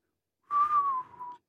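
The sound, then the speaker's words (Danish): A person whistles a pop song melody alone, a single clear tone held for about a second that rises slightly and then slides gently downward, like the start of a tune, moderately loud. “Skal lige fløjte den?”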